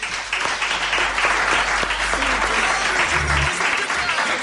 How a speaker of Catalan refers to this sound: Un aplaudiment per ell per acompanyar-nos.